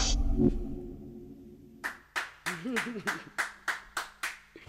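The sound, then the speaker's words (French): Applause during the midday Daily Express radio broadcast, in a steady, even rhythm: about eight sharp, loud claps in quick succession, with a voice briefly sounding over the first few. Before the claps begin, a low hum fills the quiet. “Eh, ne vous trompez pas, ces applaudissements en valent 10 000, tous les gens, euh, et bien plus même, tous les gens qui nous écoutent ce midi euh, pour ce Daily Express”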